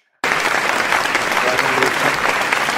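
Steady, dense applause from a crowd begins abruptly after a brief silence and continues at full strength, a loud wash of clapping with no pauses.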